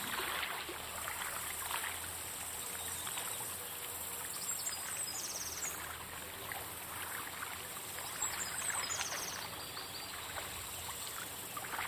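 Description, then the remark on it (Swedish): A brook among birch trees gurgles and burbles steadily as its water strikes the stones, a continuous wash of water that fills the whole stretch, with a few faint bird chirps high above it now and then. “Ett kluckande hörs när vattnet slår mot bäckens stenar.”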